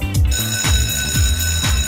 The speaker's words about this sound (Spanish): Suena el timbre, signo inequívoco de que parte una nueva clase aquí en la Academia de Emprendedores.